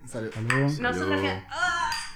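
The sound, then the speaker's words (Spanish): Glasses clink together in a toast, bright ringing taps, mixed with people's voices and an exclamation from someone. “Salud.”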